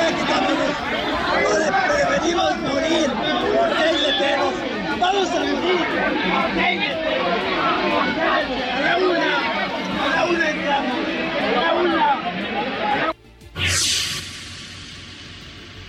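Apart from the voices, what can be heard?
crowd shouting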